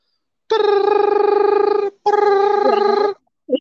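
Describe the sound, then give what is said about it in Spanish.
A telephone rings twice, loud: two long buzzing, warbling tones separated by a short gap, followed by the brief start of a voice. “Ah, Suena el teléfono.”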